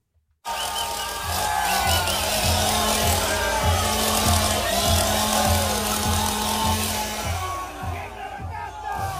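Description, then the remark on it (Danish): Javier Milei revs a chainsaw loudly in repeated rhythmic bursts while standing on the bed of a pickup truck in Argentina, its engine roaring steadily over a noisy, cheering crowd before the sound thins out near the end. “Det er lyden af det politiske system i Argentina, der bliver savet over langt, langt nede på stammen af en mand med en motorsav.”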